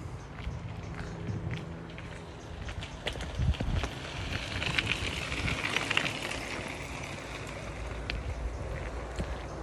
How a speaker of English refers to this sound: We're now walking along the canal towpath. It's about four miles from Bathampton Mill to the Angelfish Cafe at Dundas Aqueduct, just beyond there. There's lots of bikes coming past. Here they come.